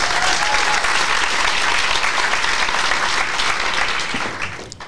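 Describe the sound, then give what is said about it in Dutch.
Steady, dense applause from a sizable crowd, loud and sustained for several seconds before tapering off toward the end. “Nog even beginnen met het applausje, toch?”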